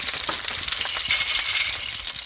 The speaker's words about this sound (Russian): И обжарим на растительном масле минут 10-15 тоже.